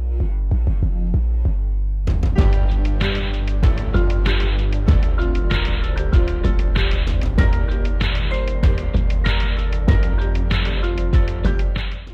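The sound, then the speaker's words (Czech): Robotic, heavily auto-tuned singing rides over a booming Roland TR-808 drum machine beat, with deep sustained bass and crisp snare hits that kick in after a sparse opening bar. “jeho hlas zní roboticky, odličtěně, protože je na něj extrémním způsobem aplikován efekt autotune, autoladičky upravující intonační chyby”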